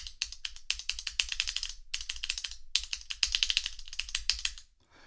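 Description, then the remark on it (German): Rapid, loud clicking of keys being typed on an unusual, non-standard keyboard, a piece of hardware being developed, louder than a normal keyboard: dense bursts of sharp clacks in uneven rhythm, with a brief pause midway and stopping near the end. “Ich habe tatsächlich eine Tastatur in der Hand und es ist keine gewöhnliche Tastatur.”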